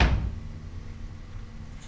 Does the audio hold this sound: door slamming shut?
yes